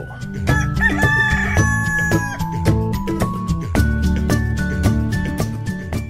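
A rooster crows, its drawn-out call layered over loud, upbeat music with a steady percussive beat that continues throughout.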